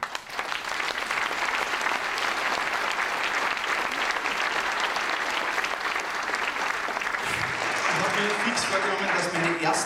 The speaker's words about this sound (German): Noch einmal und das ist dein Applaus für deinen Lebenslauf.